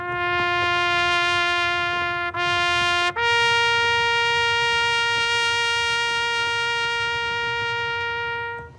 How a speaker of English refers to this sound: That is the sound of taps playing on Florida Governor Ron DeSantis' presidential campaign right now in the media.